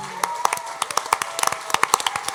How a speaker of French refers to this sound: est-ce qu'on pourrait les applaudir?